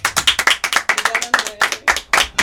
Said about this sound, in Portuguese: E uma, salva de palmas. palmas.